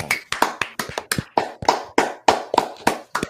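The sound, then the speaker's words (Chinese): An audience claps in a steady beat, roughly three sharp claps per second, about ten in all. The claps are crisp and fairly loud, with no talking over them. “如果今天选票的话，听你们的掌声，我应该当选。”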